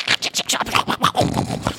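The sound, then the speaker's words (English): A voice imitates a hedgehog's noise as heard at two o'clock in the morning with no wind: a quick, steady run of about nine breathy, scratchy huffs and snuffles, fairly loud, with no words spoken. “I can remember um, once, twice, twice, I've been in a tent up a mountain by myself, and I've had the living daylight scared out of me by hedgehogs.”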